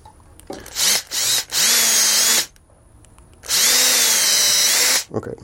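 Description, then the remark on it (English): A power drill drills two holes in a belt in several bursts: a couple of short revs, then two longer sustained whines as it bores through, with a brief quiet pause between the two main runs. Loud. “two holes are drilled.”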